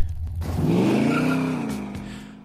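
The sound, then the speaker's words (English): A race car engine in the video game Hot Wheels Unleashed growls, its pitch climbing quickly into a loud, sustained rev that holds for about two seconds before easing off, with no voices. “growl of the engine to the detail of the tracks, Hot Wheels Unleashed is weirdly deceptive, but in a good way.”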